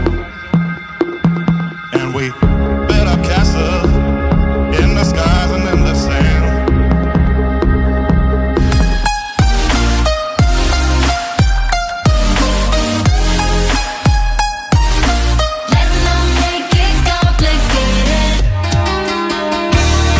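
A loud mashup of rock and electronic dance music as heard at the Exit Festival in Serbia: layered, sustained instrumental tones open the track, then a heavy, pounding dance beat kicks in about halfway and drives on steadily, with no voices.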